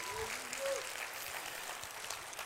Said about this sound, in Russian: Давайте с радостью дадим ему аплодисменты.